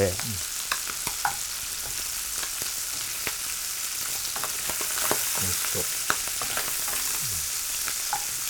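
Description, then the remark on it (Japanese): Bacon frying in a pan: a steady, bright sizzling hiss dotted with sharp crackles and pops, plus occasional soft scrapes from stirring. No one speaks. “でほんのり、あのー、焼き色が表面についてきたらここに玉ねぎを加えます。”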